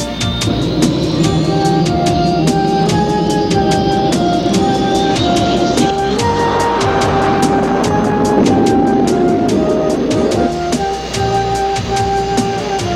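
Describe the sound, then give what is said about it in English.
A presidential jet plane roars loudly and steadily as it powers up for takeoff at an airport in Oslo, Norway, with a high turbine whine climbing in pitch over a dense, rumbling engine noise. No one speaks. “Peaceful Nations Alliance Flight 24, your presidential jet is clear for takeoff.”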